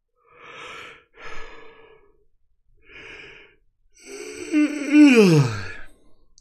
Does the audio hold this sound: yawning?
yes